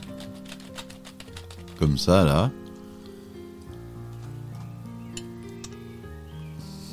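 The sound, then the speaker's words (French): Rapid, crisp clicking of mechanical keyboard keys being typed, with irregular bursts of taps running beneath a man's speaking voice throughout. “Donc on entend bien les touches”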